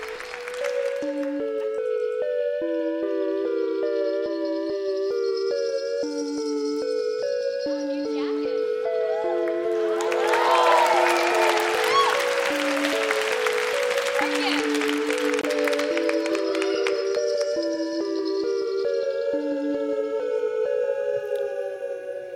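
A sellout live crowd at a Snap Judgment live show at the Brooklyn Academy of Music breaks into loud cheering and applause that swells midway and lingers, rising over a steady, bright musical theme that plays throughout.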